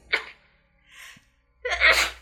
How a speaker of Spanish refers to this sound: Salud. Ay, perdón. Es el COVID.